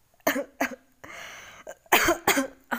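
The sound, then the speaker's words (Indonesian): A string of harsh coughs from a person ill with fever and a cold: two quick ones, then a raspy wheezing breath, followed by a louder burst of three or four chesty coughs in rapid succession. No talking. “sorry sorry guys aku lagi demam demam batuk pilek gitu pusing badanku panas banget”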